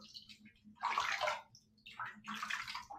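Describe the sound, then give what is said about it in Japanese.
Water runs into a bathtub being filled for a bath, with a hissing, splashing rush that swells in two surges over a low background hum. It is moderately loud, with no talking. “あと20分経ったら多分、湯立つ。うん。あと10分ぐらいです。”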